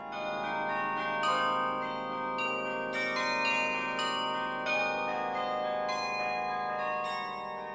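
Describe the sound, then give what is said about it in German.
Carillon bells ring out a melody over the rooftops of Munich, played from a fully mechanical keyboard whose keys move the clappers in the bells, each struck note blooming with shimmering overtones that overlap and linger, steady and fairly loud with no voices present. “das voll mechanisch ist, bewegt sich parallel zu meinem Tastendruck auch der Klöppel oben in der Glocke. Und dann erklingen über den Dächern Münchens Melodien vom Kirchenlied über klassische Werke bis hin zu Schlagern”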